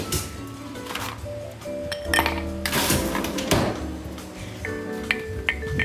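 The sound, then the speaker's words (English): A large ice cube is grabbed from a freezer for making a Negroni; ice cubes clink and rattle with several bright glassy knocks and scraping rustles spread over a few seconds, fairly loud, no talking. “Okay, now I'm gonna go grab a nice big ice cube from the freezer.”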